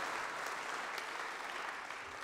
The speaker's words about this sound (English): Come on, that's worth a clap.